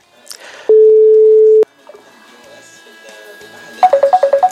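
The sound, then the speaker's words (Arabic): A phone line drops: a loud, steady low tone holds for about a second, then a quick run of short, evenly spaced beeps repeats at the end, with faint voices underneath. “لا انقطع الخط”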